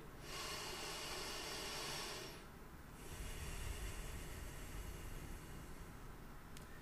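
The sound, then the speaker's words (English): A long, hissing nasal inhale lasts about two seconds, followed after a brief pause by another sustained, slightly rougher breath. Fairly loud, with no talking. “Can you focus on breathing in through your nose?”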